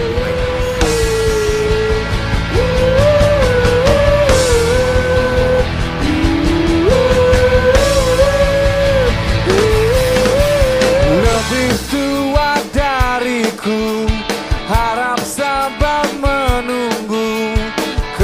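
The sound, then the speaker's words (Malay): A song mashup plays loudly and continuously, a sung melody over full instrumentation, with the arrangement shifting to sharper, plucked-sounding beats about two-thirds of the way through. “Kita dengarkan dulu pagi yang gelap dan juga slumber. Mashup baik.”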